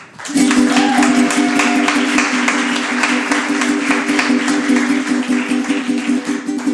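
A concert crowd breaks into loud, sustained applause for a band, dense clapping filling the whole stretch, with a steady low droning tone humming beneath it.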